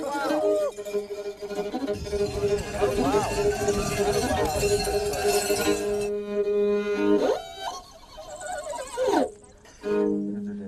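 A horse gallops with a rapid, rhythmic patter of hoofbeats for several seconds over a steady droning tone, followed by quieter rising and falling sounds.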